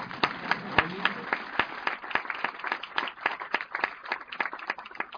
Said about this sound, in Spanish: Ok, vamos a dar un aplauso al cheque, ¿sí o no?